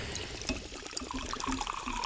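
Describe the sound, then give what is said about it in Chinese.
Sparkling water fizzing and bubbling steadily, a dense crackle of tiny pops over a soft liquid wash, with no talking. “让我们听一听气泡水的声音。”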